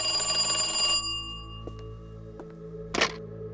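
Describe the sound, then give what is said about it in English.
A telephone rings with a bright, metallic bell tone for about a second, then decays. A few soft clicks and a short clatter follow, as if the receiver is picked up. “Please give the phone to your husband.”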